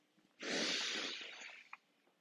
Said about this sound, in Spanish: Pues voy a acudir a las personas expertas alrededor y le voy a preguntar seguramente a alguno de mis tías o alguno de mis tíos y me va a decir, mi hijito, lo que tiene que hacer es respirar profundo.